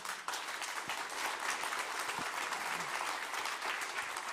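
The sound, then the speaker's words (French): A church audience applauds the worship, technical, sound, welcome and cleaning teams, a dense, sustained wash of many hands clapping at an even level throughout, with no voices standing out. “Est-ce qu'on peut les applaudir”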